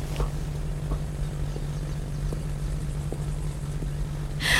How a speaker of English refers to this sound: I can't get on that plane. I, I, I can hardly fly commercial, let alone just a, a tiny little propeller thing like that. I can't do it.